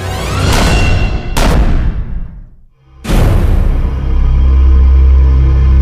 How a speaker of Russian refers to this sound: Стараясь не шуметь, взвел курок двустволки. Через минуту раздались выстрелы.